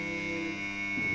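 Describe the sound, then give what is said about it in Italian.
A steady electronic alarm buzzer, ending a ten-minute visiting phone call, drones continuously at an even, fairly loud level, with a slight shift in its tone just before it cuts off. No one speaks. “Addio, allarme.”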